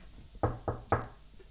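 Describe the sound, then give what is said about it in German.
Three firm knocks on the wooden door of a small hut in the evening, evenly spaced, with quiet surroundings and no voices. “Es klopfte an,”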